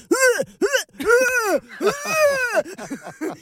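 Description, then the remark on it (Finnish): A voice imitates gagging and retching: a rapid series of loud, strained, groaning heaves with rising and falling pitch, trailing off into shorter choking bursts. “Sitten mun tytär sanoi mulle, että kun laittaa peukalon kämmeneen ja sitten nyrkkiin siihen ympärille, niin se estää offroksurefleksin tulemisen.”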